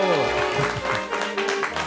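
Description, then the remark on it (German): A frenetic audience in a historic hall of the Haus des Rundfunks on Masurenallee in Berlin applauds and cheers loudly and continuously, dense clapping mixed with whoops and shouting voices for the whole stretch. “Ein frenetisches Publikum Mitten im Haus des Rundfunks in einem historischen, ja, ich will es nicht ganz Sendesaal nennen, für diejenigen, die es nicht angucken können.”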